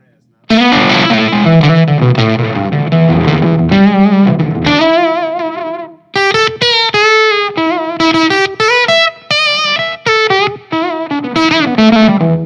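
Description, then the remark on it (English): An electric guitar runs through a gain pedal with a light overdriven edge, playing loud chords and quick melodic lines. It pauses briefly midway, then returns with brighter, punchier notes. “See, like there's already a little bit of gain on it.”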